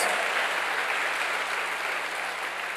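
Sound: audience applause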